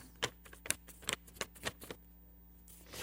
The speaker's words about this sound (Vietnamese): xong tôi chồng lại với nhau tôi cắt làm hai nữa tôi chồng lại xong tôi cắt làm hai nữa tôi chồng lại xong tôi cắt ra làm hai tôi chồng lại xong tôi cắt ra làm hai tôi chồng lên nhau